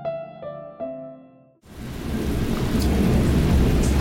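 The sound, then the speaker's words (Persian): Three soft musical chime notes ring out, then real rain, recorded without sound effects after several very hot days, sets in abruptly and pours steadily and loudly, a dense hiss over a deep, continuous rumble of thunder. “من میخواستم که صدای خود خود بارون رو بشنوین و هیچ ساوند افکت این وسط نباشه این واقعا صدای بارونه و امروز یه بارون خیلی خوبی زد بعد از چند روز خیلی گرم”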